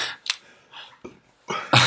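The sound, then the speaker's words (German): A sneeze: a few sharp, breathy bursts build up over a couple of seconds, ending in a loud, forceful blast. No one speaks. “Gesundheit.”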